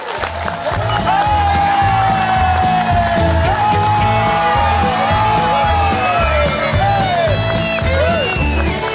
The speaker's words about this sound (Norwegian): Jeg må, jeg må, si at Allerede har Vestnes satt en rekord. Det er en sånn jubelrekord, føler jeg. Hvem er det som står og jubler der? Det er bare deg! Yeah! Dere setter jublerekord, folkens!